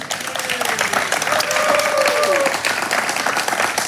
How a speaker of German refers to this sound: du hast recht und das ist dein Applaus